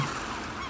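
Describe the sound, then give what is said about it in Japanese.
A brief burst of honking calls from black birds gathered on rocks, with waves breaking below them, several birds overlapping into a steady, dense clamor at moderate volume, with no talking. “黒鳥という鳥が岩の上に集まりその下に波が打ち寄せているのが見えました”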